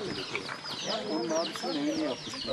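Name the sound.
hen clucking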